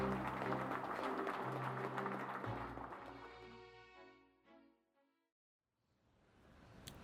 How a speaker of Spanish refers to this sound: mientras que afuera se eleva el sonido de una multitud que aplaude.